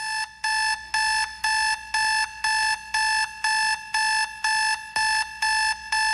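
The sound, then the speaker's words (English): An alarm clock beeps insistently, a loud electronic tone repeating about twice a second in a steady rhythm, roughly a dozen beeps with no voices or other sounds. “I made a commitment to play that sound three seconds longer than you would want me to so that it would really hit home.”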